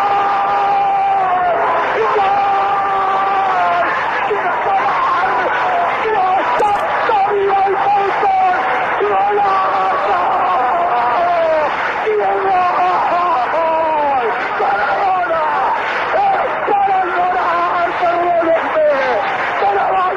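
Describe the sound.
A stadium crowd, with Mexican fans, roars and cheers after Diego Maradona's goal putting Argentina 2–0 ahead of England, a loud, continuous swell of many voices with rising and falling shouts that holds steady for the whole stretch.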